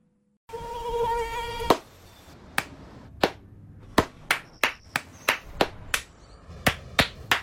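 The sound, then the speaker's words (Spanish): A high, thin mosquito whine hums briefly, then sharp hand claps ring out one after another as someone tries to swat the mosquito, about a dozen in an uneven, quickening rhythm, loud with no talking. “No aplaudamos al mosquito, combatámoslo en serio.”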